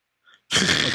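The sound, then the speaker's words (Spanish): A faint quick intake of breath, then one sudden, loud sneeze that bursts out hard and carries on to the end, with no talking. “Salud.”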